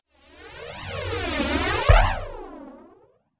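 A raven in a nature park gives one long, strange, human-like warbling call that swoops up and down in pitch for about three seconds, fairly loud, with a brief click near the middle and no one talking.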